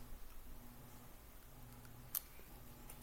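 A pencil taps on a tabletop: one sharp knock stands out, followed by a couple of fainter taps near the end, over a quiet background hum with no talking.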